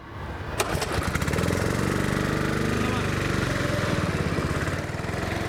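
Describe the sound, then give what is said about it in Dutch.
A car engine roars loudly as it drives a lap around a race circuit at Kartenhuis, going very fast, its pitch climbing and shifting through the gears, after a brief sharp click at the start. “Ik rij nu op het circuit.”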